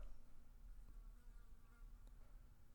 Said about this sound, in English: And while this horsefly is buzzing around my head, it's a fucking it's, it's a resident in this garage. Uh, especially when I'm doing this for some reason, it just comes in while I'm fucking trying to do this dumb shit.